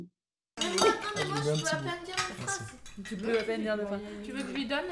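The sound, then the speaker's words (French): Dishes and cutlery clink and clatter irregularly beneath steady overlapping conversation as a family gets ready for dinner, the light metallic and ceramic taps scattered throughout after a brief silent start. “J'ai donc posé la question qui fâche alors qu'on s'apprêtait à dîner.”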